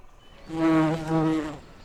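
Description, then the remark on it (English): A bumblebee buzzes for about a second, a steady low drone that swells, dips briefly, then swells again before fading, with no voices present. “Once upon a time in a beautiful flower garden, there lived a busy little bumblebee named Breezy.”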